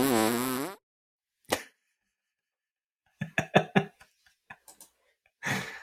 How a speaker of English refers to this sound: I'm just going to get these uh, farts ready.